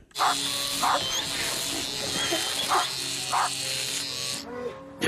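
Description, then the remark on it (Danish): A steady electric shaver buzz runs throughout as dogs, a Labrador and a St. Bernard among them, are shaved, while a dog barks about four times in short, separated bursts. “lige barberet en labrador, en Sankt Bernhards hund og en lille sinde.”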